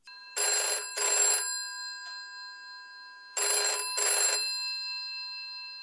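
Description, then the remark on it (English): An outgoing phone call to a friend ringing: two pairs of double rings, each a short bright burst, separated by a pause, over a steady faint tone, with no one speaking. “So let's give him a call”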